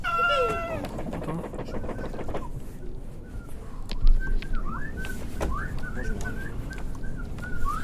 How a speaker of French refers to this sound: J'adore les chants des, des oiseaux. Même moi, c'est presque. Mais c'est un peu bizarre. Mais c'est hyper, euh, hyper mélodique. Je me demande si c'est des, euh, si c'est des tonalités qu'on peut euh, reproduire sur des instruments.